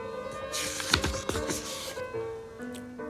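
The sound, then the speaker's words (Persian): A crisp rustle of a paper page being turned, with a couple of quick crinkling swishes over about a second, then quieting over a faint steady background hum. “ورق میزنم”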